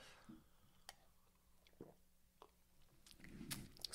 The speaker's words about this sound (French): OK, on va faire un vrai school puis on boit, guys. Yes, sir. on boit. On boit à cela.